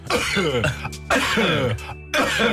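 Repeated coughs and throat-clearing sounds land at a steady, roughly one-second pulse, working as the rhythmic beat of an Italian band's Italo Disco song over a sustained low musical drone. Loud and clear, with no talking.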